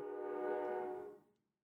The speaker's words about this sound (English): all right, that train is loud. Let me let that go through.